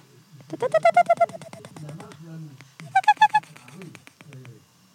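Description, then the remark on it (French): A person imitates distant birds moving about with their voice: a quick run of five or six whistled chirps, a pause, then another short burst of four, with soft breathy sounds in between. “Un son que j'aime beaucoup, c'est c'est les oiseaux au loin qui circulent.”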